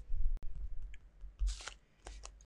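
Quick scratchy strokes of a pen scribbling across paper as someone sketches a drawing, a few short bursts of dry friction, with no one talking.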